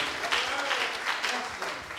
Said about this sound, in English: Come on, give Jesus a hand clap of praise.